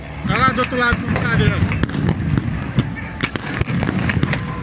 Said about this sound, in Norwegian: Og for å få kontroll så må de liksom ty til tåregass, da. Så du hører jo liksom at tåregasskanonene eh, går av eh, mens glass knuses og ja, folk skriker.